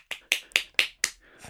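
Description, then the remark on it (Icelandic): Five small, quick claps in an even rhythm, fairly light, made to imitate a dinosaur clapping with its tiny arms, with a brief faint rustle at the end and no voices. “því að það gátt eiginlega ekki gert neitt annan en að klappa þannig að ef þú eru spenntar á klöppu það er svona”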